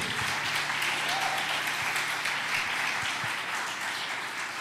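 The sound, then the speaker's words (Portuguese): Steady audience applause, a dense wash of many hands clapping at a constant level for several seconds, with no voices rising above it. “100%, você pode aplaudir.”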